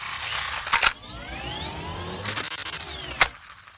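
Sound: dial-up modem connection sound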